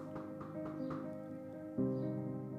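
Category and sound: household object, knock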